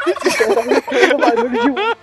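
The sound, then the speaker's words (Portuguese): A loud turkey gobble: a rapid, warbling burst of throaty chatter running for about two seconds, with no one talking over it. “Triste, então, é o povo da areia tem medo de perus.”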